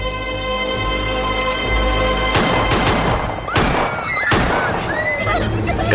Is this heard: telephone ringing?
no